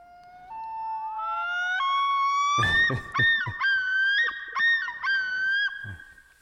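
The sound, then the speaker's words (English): Loons calling nearby, a long rising, wavering wail that breaks into loud, quavering tremolo calls repeated several times, with no talking over them. “Oh, there, there's the loons. I mean, they were oh. close. That's such a cool sound.”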